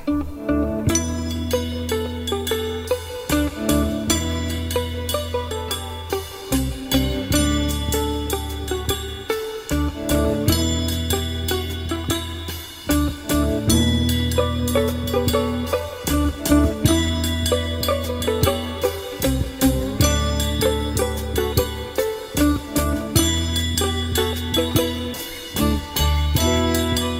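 A 1969 rock instrumental plays from a recording, with a steady driving bass and drums under a bright, ringing melodic line that repeats in phrases, loud and continuous with no talking.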